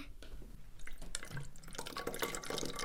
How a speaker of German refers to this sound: Ich habe jetzt einen Trichter in die Flasche gesteckt und da fülle ich jetzt das Wasser rein in die Flasche.